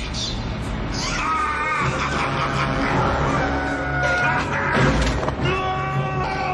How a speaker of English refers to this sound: oh, screaming while the bus is in motion.